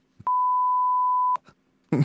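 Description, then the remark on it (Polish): A single steady censor beep, a pure mid-pitched tone held for about a second, loud and alone, with brief clicks at its edges and a short burst of noise just after. “Piszczenie działa.”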